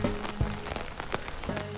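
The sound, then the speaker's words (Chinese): Rain beginning to fall on a summer night at the end of a night visit to Zhihua Temple, in a steady, soft hiss, with scattered sharper drop taps and a faint low hum running underneath. No one speaks. “现在开始下雨了，我的夜游智化寺顺利结束了。”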